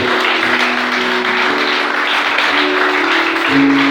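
An audience at an evening church service applauds the Lord with dense, steady clapping that stays loud for the full four seconds, while sustained low keyboard-like tones hum beneath the clapping.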